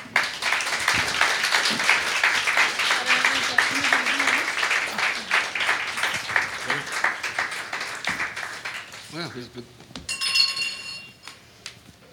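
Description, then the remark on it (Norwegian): An audience applauds the panel at a Litteratur på blå literature event steadily for several seconds, a dense wash of clapping that fades out, followed by a few faint clinks and a brief voice near the end. “Gi dem en applaus.”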